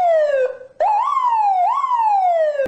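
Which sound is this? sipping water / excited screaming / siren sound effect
siren sound effect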